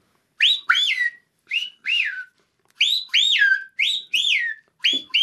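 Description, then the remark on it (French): Loud, shrill whistled notes imitating the screaming piha's call, about nine sweeping up-and-down phrases in quick paired bursts with brief pauses between them, and no talking. “le piao piao, enfin le piao vociférence”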